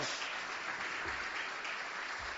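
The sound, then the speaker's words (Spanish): An audience gives a strong round of applause during an afternoon worship service, clapping steadily in a dense, even wash of many hands at a constant level throughout, with no voices standing out. “Dele ese fuerte aplauso en esta tarde.”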